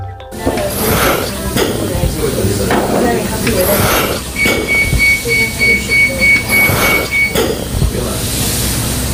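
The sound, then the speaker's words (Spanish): A patient breathing through a mechanical ventilator in an intensive care unit: steady hissing puffs of air repeating every second or so, with a faint electronic tone holding briefly in the background. “El sonido que han escuchado es el de un paciente respirando por un ventilador mecánico.”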